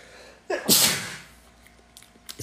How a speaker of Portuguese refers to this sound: espirrei.